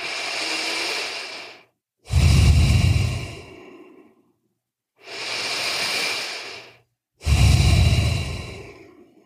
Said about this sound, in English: Just breathe in and out through your nose for three breaths. No mouth yet. Just breathe through your nose in and out.